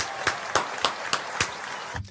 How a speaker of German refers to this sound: Und auf Platz 1. Dafür gibt es zu Anfang einen Applaus